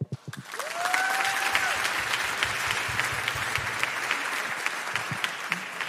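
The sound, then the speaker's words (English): Sustained applause from an audience welcoming a guest speaker one morning, a dense wash of clapping that swells in quickly and holds steady for several seconds, with a brief whistle near the start. “And so, can we share our delight for him to be here and giving him a warm Raider welcome?”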